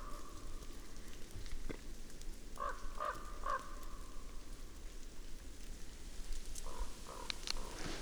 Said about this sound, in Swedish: Det lät inte som den korpen var på några kadaver.